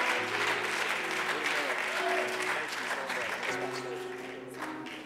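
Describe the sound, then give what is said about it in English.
An audience at an Apostolic Church applauds steadily for several seconds, welcoming the pastor as he comes to preach, a dense wash of clapping with a sustained organ chord and murmuring voices underneath, tapering slightly near the end. “Could we give him a warm hand clap of appreciation as he comes to deliver the Word of the Lord?”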